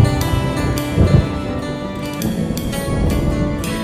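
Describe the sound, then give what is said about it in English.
Rolling thunder rumbles low and steady over a constant hiss of rain, swelling briefly near the start, with faint tonal sounds beneath and no voices. “Raindrops on the windshield, there's a storm moving in. He's heading back from somewhere that he never should have been. And the thunder rolls.”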